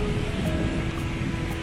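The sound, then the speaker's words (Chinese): Steady roar of very large Indian Ocean waves mixed with strong buffeting wind at the seaside in Sri Lanka, a dense, continuous wash of noise with no pauses and no voices, holding loud and even throughout. “印度洋水，非常大的浪和轰，轰，非常大的浪和风。”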